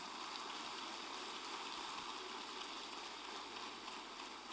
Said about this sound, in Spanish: Dale un fuerte aplauso al Señor.